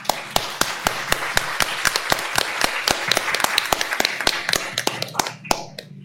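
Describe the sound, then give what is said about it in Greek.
An audience applauds steadily as a speaker, a psychoanalytic psychotherapist, is introduced. A dense wash of clapping with sharp, evenly spaced claps stands out on top. After about five seconds the applause fades out, ending on a final clap. “ψυχαναλυτική ψυχοθεραπεύτρια και σύμβουλος Φωτοκιούρ, και θα ήθελα εδώ να γίνει το χειροκρότημα.”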